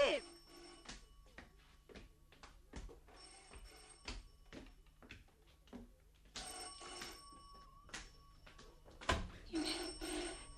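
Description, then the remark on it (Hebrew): A telephone bell rings in repeated bursts, loud, with brief pauses between rings and some faint background activity. “הטלפון מצלצל.”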